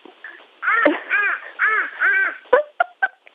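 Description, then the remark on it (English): A baby boy imitates a crow, giving four loud, drawn-out caws in a steady row, followed by a few short, sharp bursts of sound. “You're a great crow, my love.”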